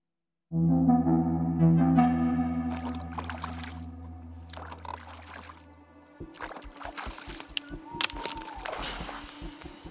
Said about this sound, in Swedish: Båten slog till mot den lilla stranden med ett krasande ljud.